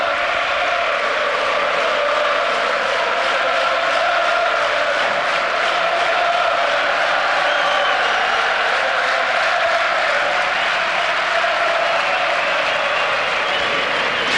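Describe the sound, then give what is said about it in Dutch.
A stadium crowd cheers and applauds in a dense, continuous roar of clapping and voices, steady and loud throughout without pause, as the players come onto the field to thank them. “Hoor het publiek is juichen.”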